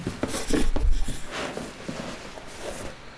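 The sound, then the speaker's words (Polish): Crinkling and rustling of plastic bubble wrap being pulled off a vocal booth packed standing upright in a cardboard box, with scattered soft taps and thumps, loudest in the first second and then quieter, irregular handling noises. “a ta jest zapakowana tak, że stoi i jest zapakowana w folii bąbelkowej. Teraz ją wyjmę.”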